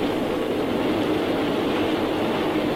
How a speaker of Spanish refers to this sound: Ahí viene el tren, se escucha el tren venir.